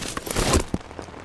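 Steady rain patters onto a hard surface, a dense hiss of small drops broken by a few sharper splashes, moderately loud, with no voices.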